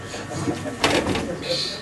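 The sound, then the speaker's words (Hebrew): An old door creaks open with a short scraping burst that stretches into a thin, high, sustained squeal. The sound is moderately loud, over a faint murmur. “דלתות מימי אנטיוכוס.”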